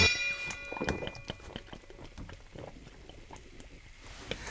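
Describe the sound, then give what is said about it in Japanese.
Kimura Subaru gulps down a fizzy cola in quick, repeated swallows during a cola speed-drinking challenge, with soft wet throat sounds and faint carbonation crackle, after a brief metallic ring at the start. “木村昴のコーラ早飲みよーいスタート”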